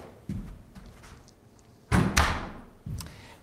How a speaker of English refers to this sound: Sorry, I'm trying to close the door here to reduce the echo.